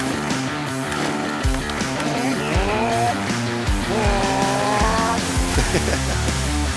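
Motorcycle racing paddock ambience in Rode: loud engines rev and whine, with repeated rising pitch sweeps over a dense mechanical roar and no talking.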